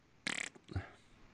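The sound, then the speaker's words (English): A short, raspy fart noise sputters in rapid flutters, then a brief lower puff follows, fairly loud against a quiet background with no talking. “fart noises here”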